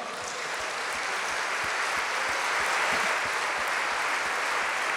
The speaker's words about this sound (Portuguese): Aleluia. Podemos dar mais um aplauso ao Senhor?